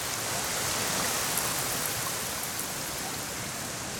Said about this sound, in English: My favourite thing to do is use my ears to listen to all the different sounds that nature makes I love the sound of waterfalls.